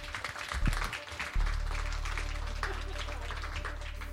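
Crowd applause for two people on the Blogsofa of the Stadtbücherei Düsseldorf, a steady wash of many hands clapping at moderate loudness, holding evenly for several seconds over a low background hum.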